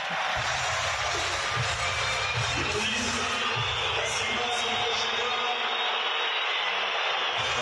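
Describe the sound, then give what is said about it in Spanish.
A large stadium crowd at a football match applauds a player in a steady, dense roar of clapping and crowd noise that holds at an even, loud level for the whole stretch, with no clear voices standing out. “que fueron los aplausos”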